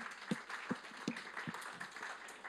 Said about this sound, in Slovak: Dajme potlesk Ježišovi jeden.